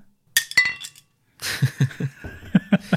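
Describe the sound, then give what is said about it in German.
Glasses of beer clink together in a toast, a bright ringing chime with a few quick follow-up taps, then a burst of soft laughter and low murmuring as the clinks continue. “Und dann können wir da durch anstoßen.”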